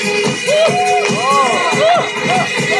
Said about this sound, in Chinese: 看一下是你拍的快，还是我小哥吹的快？所以掌声就是我的加油器，来一口，不要吝啬掌声，也要找到你。